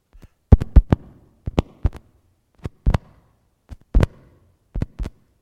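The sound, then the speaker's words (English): Heartbeat thumps sound alone and sharp, arriving in uneven clusters of two or three beats separated by short silences, with no voices present. “We go through preschool, the heart never stops beating.”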